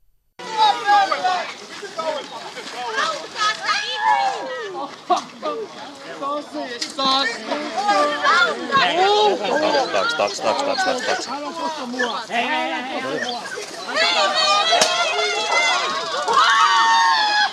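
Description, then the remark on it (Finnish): A dense crowd commotion in Helsinki's Dallape Park on an August night in 2016, many voices shouting and chattering over one another with occasional shrill cries, loud throughout with no pauses. “Ei, vaan helsinkiläinen Dallape-puisto elokuisena yönä vuonna 2016.”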